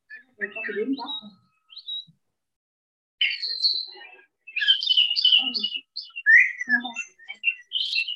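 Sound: bird singing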